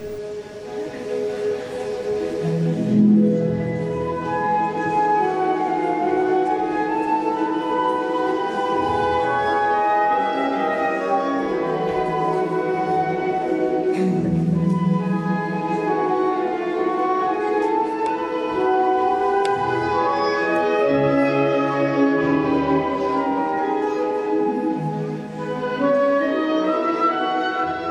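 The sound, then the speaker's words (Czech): An orchestra rehearses music for the ballet Sleeping Beauty, with full sustained chords and layered melodic lines holding at a steady, fairly loud level throughout, and no voices. “A ze zkoušky orchestru se ještě na chvíli vrátíme do studia”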